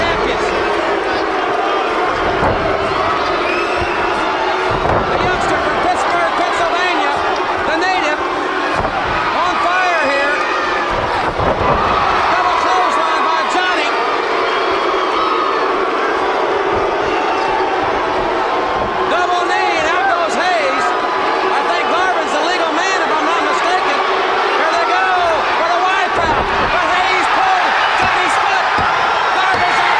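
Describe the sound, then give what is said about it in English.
A large wrestling crowd boos loudly and without letup as Shane Douglas makes the hot tag and comes in throwing dropkicks, a dense roar of many voices broken now and then by sharp thuds from the ring. “Have you ever seen a hot tag where the babyface comes in throwing drop kicks left and right and the crowd's booing the living shit out of you”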